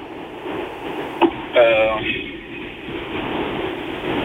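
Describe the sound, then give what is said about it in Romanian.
Wind buffets the microphone of a caller's phone on speakerphone, a steady rough rushing over a narrow telephone line, with a sharp click and a brief warbling tone partway through. “A, se aude da. mai mult vântul.”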